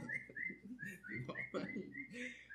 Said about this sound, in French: un oiseau commence à chanter très fort.